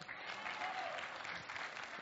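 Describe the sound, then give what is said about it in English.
An audience at a Sunday church service claps together, a dense, steady wash of many hands that holds for a couple of seconds at an even, moderate loudness. “Yep, we're going to clap, let's do it.”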